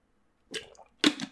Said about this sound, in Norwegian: Nå skal jeg bare ta en liten slurk med vann, for det ble ganske varmt her. Ikke få på den korken her, da. Der, da.